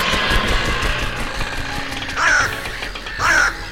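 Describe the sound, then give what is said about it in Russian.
Two loud, harsh crow caws ring out about a second apart over a steady background rumble, with no voices present; the crows are perched on antennas atop a spacecraft. “Птицы повадились садиться на антенны, поэтому связь барахлит.”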